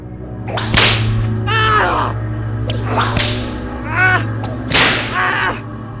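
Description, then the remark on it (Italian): Violent whip lashes crack sharply and loudly, about three strikes spaced a couple of seconds apart, with strained, pained vocal cries rising between them over a low steady hum. “Le frustate ricominciarono violentissime.”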